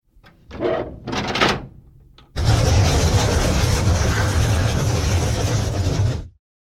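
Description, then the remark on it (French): A couple of short creaking scrapes, then a loud, sustained grinding rumble as the massive doors of a huge building slowly swing open, lasting several seconds before stopping abruptly. No voices. “m'aider à ouvrir les portes du bâtiment pour pénétrer dans le Panthéon des légendes”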